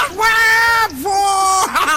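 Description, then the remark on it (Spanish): A loud war cry yell: a long held shout that dips briefly, then carries on into a second sustained cry and ends with a quick rising whoop. “Es un grito de guerra eso.”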